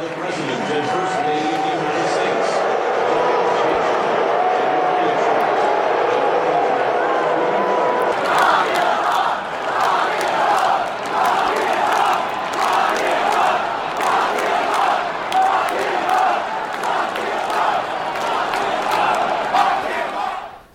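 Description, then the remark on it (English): A huge stadium crowd at a World Series baseball game in Washington roars loudly as President Trump is announced to the crowd, the dense sustained noise shifting after several seconds into a rhythmic, repeated chant that pulses steadily until the end. “President Trump showed up at the game and was announced to the crowd, and this was the response.”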